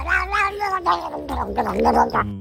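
A cat yowls in one long, drawn-out wail that wavers up and down in pitch with a few brief breaks, loud and steady throughout, with no talking.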